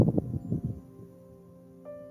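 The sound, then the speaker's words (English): Gusty wind buffets and rumbles in low bursts for under a second, then fades into a steady low hum, with a brief electronic tone sounding near the end. “Excuse the wind.”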